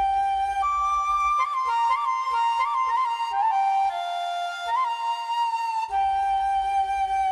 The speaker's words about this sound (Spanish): y es la flauta bansuri, que también es una flauta traversa, pero es de madera, de junco, eh, de eh, caña, ¿verdad? Vamos a escucharla. Y otro ejemplo con la flauta Bansuri.